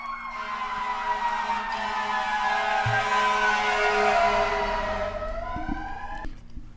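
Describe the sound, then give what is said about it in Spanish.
A fire truck siren wails steadily, its harmonic tones gliding slightly downward as it passes, with a low engine rumble underneath and no talking. “No, pero esos son, los bomberos.”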